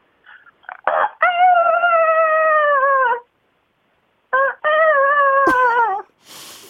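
A phone caller on a show imitates a rooster crowing twice: two loud, drawn-out cock-a-doodle-doo calls separated by a short pause, with a sharp click and a burst of noise near the end.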